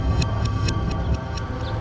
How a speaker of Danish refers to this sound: Togets bremser skær igennem bakkedalen,